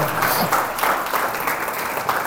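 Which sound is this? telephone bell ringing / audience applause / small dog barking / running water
audience applause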